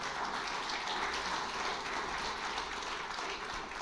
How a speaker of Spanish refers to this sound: No, denle el aplauso a Dios y se lo merece.